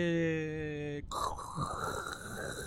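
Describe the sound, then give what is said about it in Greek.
A person imitates white noise: after a brief low voiced hum, they produce a steady, breathy hiss that lasts nearly two seconds. “Και πώ ακούγεται λευκό θόρυβο, Ακούγεται.”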